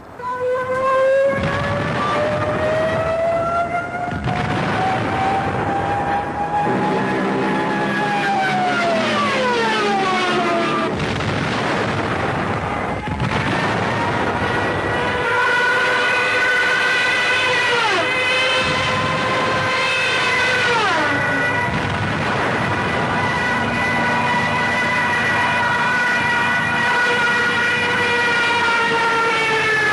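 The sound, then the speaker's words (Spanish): During an air raid on Madrid on the night of 30 October 1936, several air-raid sirens wail at once, their tones sliding up and down and overlapping, loud and continuous over a low droning rumble of countless bomber planes dropping bombs; no one speaks. “Un sinfín de aviones dejaban caer sus bombas sobre Madrid.”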